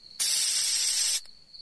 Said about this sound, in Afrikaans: Die vrou besef sy gaan nooit die kakerlak raakgeslaan kry nie en sy vat 'n spuitkannetjie met gif. Sy mik na die kakerlak en spuit.